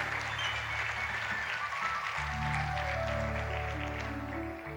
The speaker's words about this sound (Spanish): Ahí va un amén, ahí, ahí va un aplauso.